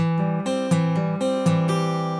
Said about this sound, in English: Okay, the next part goes over a C chord. All right, C chord, and that lick sounds like this